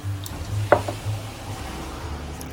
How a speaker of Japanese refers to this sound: その代わりねえー、ロックの私が飲んでる音を聞いていただいて終わりたいと思います